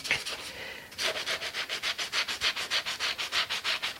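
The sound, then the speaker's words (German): Brisk, rhythmic scrubbing with a scouring sponge of the kind used for cleaning stove plates or pans, fast back-and-forth strokes after a brief softer rub at the start, with no talking. “Oder dann habe ich hier noch ein Schwimmchen, das man braucht für die Kochherdplatte oder für die Pfanne auszuputzen.”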